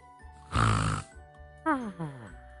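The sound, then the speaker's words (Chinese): A voice imitates a fox snoring as it falls asleep: one loud, rough, rasping inhale, then two shorter whistling exhales that slide downward in pitch. “哼哼声变成了呼噜声， 他睡着了。”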